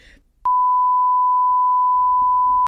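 A steady, loud censor bleep tone at a single pitch holds for about two seconds, starting and stopping abruptly, with faint background murmur before and after.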